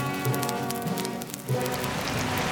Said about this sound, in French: Presque aussitôt, il se mit à pleuvoir à verse, et l'incendie fut bientôt maîtrisé